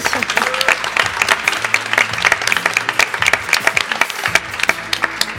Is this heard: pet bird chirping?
no